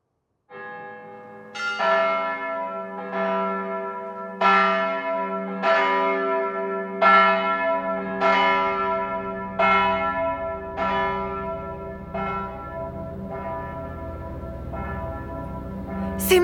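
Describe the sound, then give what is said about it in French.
Church bells ring for the armistice in a steady, repeated peal, each strike leaving a long shimmering resonance that overlaps the next, with a low rumble underneath. No voices are heard. “Vous entendez l'abbé Ce sont les cloches de l'armistice La liberté, l'abbé La liberté”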